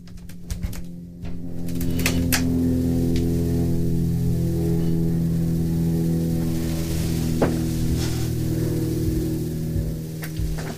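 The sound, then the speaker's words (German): A helicopter somewhat far away drones steadily for the whole stretch, a low humming rumble that stays fairly even as it passes and turns away, with a few faint clicks and chirps scattered above it. “Ich glaube, ich höre Hand einen Hubschrauber. Ich versuche jetzt mal das Mikro in die Richtung zu drehen.”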